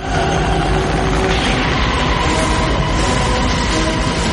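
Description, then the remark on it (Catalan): A helicopter's loud, steady mechanical roar from a scene in the film Apocalypse Now, a dense continuous drone with a humming engine tone underneath, unbroken with no voices. “Escolta el so. Aquest, a... les aspres d'aquest helicòpter la tens dintre”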